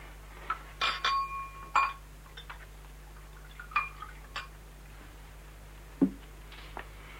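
Glasses clink together several times as whisky is poured, bright ringing taps spaced irregularly over a few seconds against a quiet background, with no voices. Any pouring is too soft to stand out.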